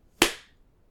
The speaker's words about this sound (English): Okay, are we ready to. Wait. Are we ready to clap? Okay. One, two, three.